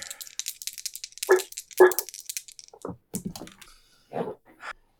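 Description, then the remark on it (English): Rapid, irregular clacking of typing on a computer keyboard, with a few heavier, louder key strikes mixed into the steady patter of clicks. “Uh, keeping at this computer.”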